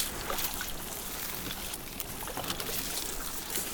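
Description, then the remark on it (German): A small boat scrapes and sloshes through shallow water as the person in it pushes off from the edge and shifts their weight until the bottom slowly drops away, with steady rustling, splashing and trickling noises, fairly loud throughout, no voices. “Hier ist es flach, ich robbe mit meinem Oberkörper, verlagere mein Gewicht auf das Gesäß, bis der Grund allmählich fällt und endlich genügend Wasser unter dem Kiel das Fahren erleichtert.”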